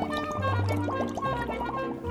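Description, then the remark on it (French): Water in a full bathtub bubbles and gurgles steadily for about two seconds, a quick run of rising liquid blips over a low, steady rumble. No voices are heard. “À ce moment, l'eau bouillonna et la sirène s'y trouva.”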